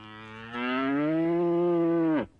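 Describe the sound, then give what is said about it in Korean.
A single long, loud cow moo, rising slightly in pitch and holding steady for about two seconds before cutting off. No talking. “그렇게 당나귀는 또 소로 바뀌었어요.”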